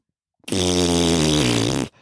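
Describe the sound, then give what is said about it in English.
A voice makes one loud, sustained fart imitation, mimicking a man in the next toilet cubicle, a low buzzing raspberry lasting over a second that drops slightly in pitch before cutting off abruptly. Nobody speaks. “farting, fucking plopping big giant shits.”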